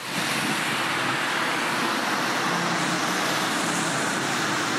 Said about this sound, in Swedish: kommer någon åkande i en, eh, en jävligt ful bil. Har inte tvättat den på länge.